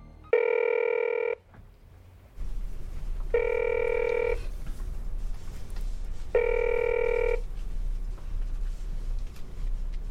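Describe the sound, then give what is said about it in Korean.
A phone rings three times in steady, evenly spaced bursts of about a second each, clear, over a low background hum, as a call to someone's father goes unanswered, with no one picking up or speaking. “아니, 네 아버지는 어디서 뭐라고 했길래 전화도 안 받고?”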